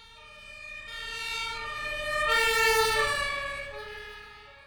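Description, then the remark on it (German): A two-tone ambulance siren wails as it drives past, growing louder to a peak, then fading as its pitch drops slightly while it moves away. No one speaks. “Fährt ein Krankenwagen auf uns zu, klingt die Sirene höher. Wenn er von uns wegfährt, tiefer.”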